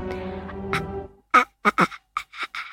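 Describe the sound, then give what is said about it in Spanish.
A person imitates the eerie sound a ghost boy in a horror film makes when about to appear: a raspy, guttural drone held for about a second, then a string of short, choppy croaking bursts, unaccompanied. “que te queda para siempre, que es un sonido que hacía el nene cuando estaba a punto de aparecer, que era el siguiente.”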